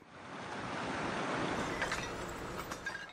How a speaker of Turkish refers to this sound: Sel Eskişehir'de ekil alanlara, tarlalara böyle geldi.